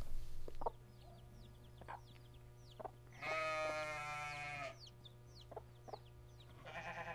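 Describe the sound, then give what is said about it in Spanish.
Chickens cluck in short, scattered bursts while a sheep lets out a long, loud bleat in the middle and another starts near the end, over a steady low hum of farmyard background; the animals are kept by families in a desert farming region. “Además, muchas familias cuidan de gallinas, cabras, borregos y por supuesto, llamas.”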